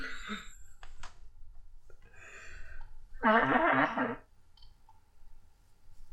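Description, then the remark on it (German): A loud, honking nose blow into a handkerchief, about a second long, preceded by a few softer sniffly rustles and snorts, with no talking. “Ich muss kurz diese Nase in, ein, äh, in einen Nasenlappen halten. Und da das laut werden wird, werde ich hier kurz mich stumm stellen.”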